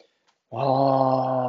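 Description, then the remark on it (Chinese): After a short silence, a big wolf's deep roaring growl comes in from the grassland: one steady, loud, low-pitched sound that holds for about a second with no speech over it. “大野狼跳出来大吼着”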